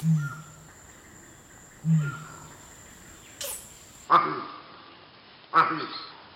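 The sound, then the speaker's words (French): A male monkey's hok intimidation alarm call: four or five loud, abrupt calls at regular intervals, the first low and booming, the later ones sharper and higher, with insects buzzing faintly behind. “Et le hoku est un cri d'intimidation que le mâle va émettre soit en contre-attaquant l'aigle, soit en contre-attaquant un, un mâle compétiteur.”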